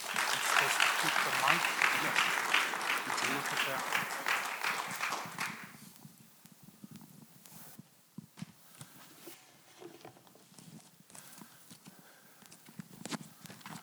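An audience applauds warmly to welcome a pastor, a dense, steady burst of clapping for about five seconds before it quickly dies away into quiet with a few scattered sounds.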